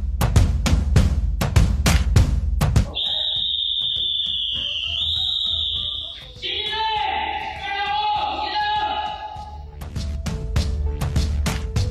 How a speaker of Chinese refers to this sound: 三幺幺零，摁响门铃，推开一个故事。